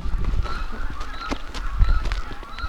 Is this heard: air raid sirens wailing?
no